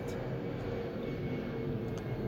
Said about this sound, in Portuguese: Ô oh, avião passando, deixa, passa avião, barulhento, danado.